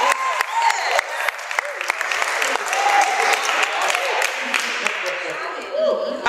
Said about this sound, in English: Do you not know that your hands, when you strike your hands and you strike part of your hands and you strike the back part and the front part, part of your body comes into alignment? Clap your hands, oh ye people.